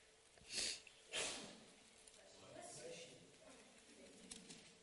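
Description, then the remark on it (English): A sneeze: two sharp, breathy bursts in quick succession, the second slightly longer, followed by soft, low murmuring voices. “Yeah, God bless you.”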